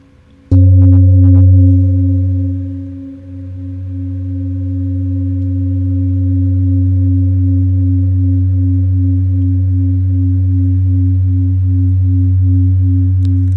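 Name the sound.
singing bowl being struck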